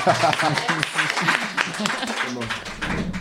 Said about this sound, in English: look at this beautiful group of authors, you guys. Aren't they beautiful? Let's just like oh, applaud beauty.